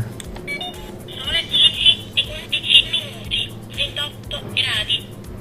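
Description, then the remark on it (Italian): A talking clock that gives the time and temperature announces the temperature in a small, tinny synthetic voice, in short clipped phrases, over a steady low background rumble. “Questo qui invece è un orologio che ti dà l'ora e la temperatura.”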